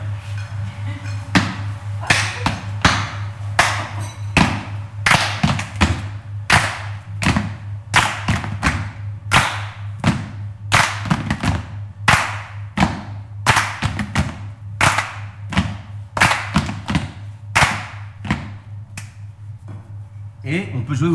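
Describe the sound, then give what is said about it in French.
A steady body-percussion pattern of sharp hand claps interleaved with dull foot stamps, with a stamp placed between the second and third beats, repeating in a regular rhythmic cycle for about twenty seconds over a constant low hum, with no talking. “Et donc on, peut aussi, ce pied qu'on met après le troisième temps, on peut le mettre aussi à l'intercaler entre le deuxième et le troisième temps.”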